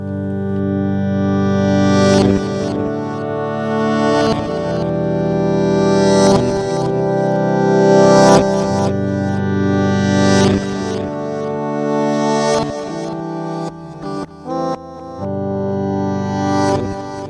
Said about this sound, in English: Alright, this is the last one of the electric guitar, but this time the chords are strummed with the double reverse technique.